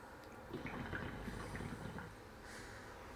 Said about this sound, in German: Ähm, ja, wir haben hier eine äh, Shisha auch im Hintergrund laufen, weshalb es auch dann ab und zu mal schön blubbert.